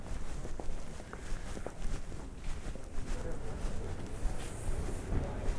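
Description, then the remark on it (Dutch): Footsteps walk steadily under the Pentagon building through a small gateway, across a small inner courtyard and back under a gateway, with a soft reverberant ambience and no voices, the steps moderately loud amid a broad background hum. “Ja, we lopen nu onder het Pentagon door, door het poortje. Dan over een soort binnenpleintje. En dan weer onder het poortje door.”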